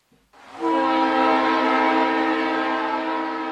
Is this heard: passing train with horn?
yes